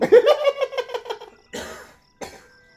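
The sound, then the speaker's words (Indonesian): A loud morning cough: a bout of rhythmic, wheezy hacking gives way to two harsh, breathy coughs spaced apart, like someone clearing their chest first thing in the morning. “Batuk pagi.”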